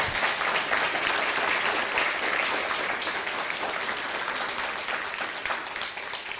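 Sustained welcoming applause from a crowd, a dense steady roar of many hands clapping at once for the full stretch, loud and even with no talking over it.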